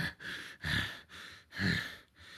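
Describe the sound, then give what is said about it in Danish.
Deep, labored breathing through the mask of a wounded, bleeding man holding his stomach, heavy hissing inhales and exhales in a slow repeating rhythm, steady with no talking. “Øh, og du kan høre fra hans maske den her dybe vejrtrækning, der sådan...”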